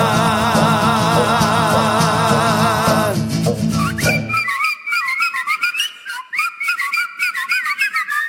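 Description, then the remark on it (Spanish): After a few seconds of dense, loud music, a person whistles a wavering melody alone, clear, with bright sliding notes and short breaks between phrases. “Por fin he aprendido a chiflar.”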